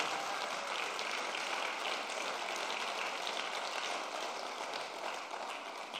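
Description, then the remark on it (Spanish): A church audience applauding the Lord steadily, a dense, continuous wash of many hands clapping at even loudness for several seconds with no voices standing out. “Vamos a darle ese aplauso fuerte al Señor.”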